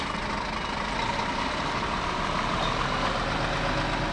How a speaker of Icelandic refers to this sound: Það er þurft að bakka, þetta er ekki smá trukkur sem er þarna áttadekja bíl, það er svo lítið.